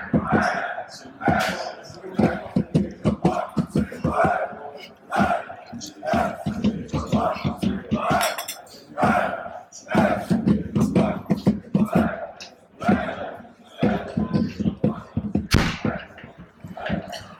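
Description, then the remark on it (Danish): A large stadium crowd at a football match chants "FC vinder, Brøndby taber" in unison, loud and dense, with sharp rhythmic bursts like claps or drum hits punctuating the repeated shouted phrases throughout. “det er publikum, der råber, FC vinder Brøndby taber.”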